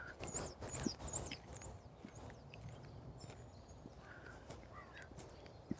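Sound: birds calling outdoors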